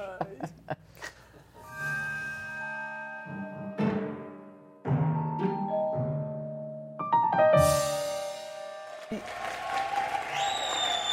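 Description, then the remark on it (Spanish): A burst of applause from a small crowd, clapping mixed in with tonal, music-like sounds and brief voices, rising and falling in loudness over about eleven seconds. “Ah, me sorprendí hasta yo gracias a la multitud que aplaudió.”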